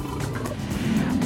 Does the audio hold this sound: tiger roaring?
yes